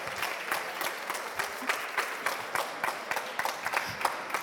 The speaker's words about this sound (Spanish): Gracias. Dense un aplauso. Gracias, gracias, gracias.